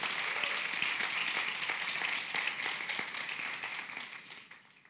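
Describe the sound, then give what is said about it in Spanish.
Dense applause from many hands at a church service on the day of Pentecost, a steady crackling wash of claps that holds strong for several seconds and then gradually fades away at the end. “aplauso, Señor.”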